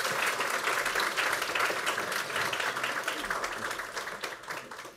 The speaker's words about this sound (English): A round of applause for the minister. Please.